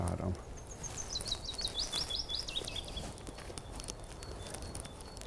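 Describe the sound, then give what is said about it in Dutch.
A small bird sings a quick series of high, chirping whistles for a few seconds, then falls quiet, heard outdoors in a quiet nature area over a soft, steady rustling background. “Op de vogels”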